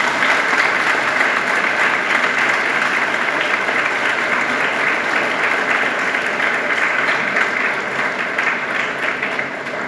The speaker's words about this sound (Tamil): இந்த கரகோஷம் இன்னும் கொஞ்சம் லாங்காக இருந்ததில்லை